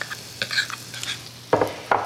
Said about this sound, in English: So I'm going to pour the batter straight into the skillet. That sizzle is going to give this cornbread the most wonderful, crispy crust. I'm going to let it bake in the oven, but I do this initially just to get that crust going.